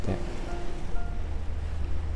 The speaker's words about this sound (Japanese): 今日は海辺に来ていて、ここから波音のライブ配信をしたんですけど